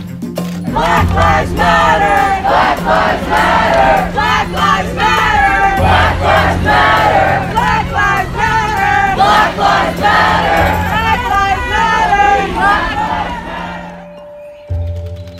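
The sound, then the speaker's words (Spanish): A large crowd at a protest march chants slogans in loud, rhythmic unison, voices overlapping steadily, with a low droning hum beneath; the chanting fades near the end. “Mientras marcho escuchando las consignas, pienso en México, en mi país”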